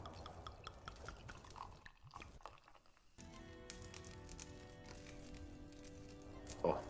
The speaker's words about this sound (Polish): Słychać ogień.